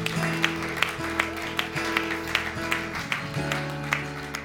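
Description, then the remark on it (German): An audience at a church service applauds God in a steady, even rhythm, about ten sharp claps over sustained keyboard chords that swell and shift underneath. No one speaks. “Lass uns Gott einen Applaus geben.”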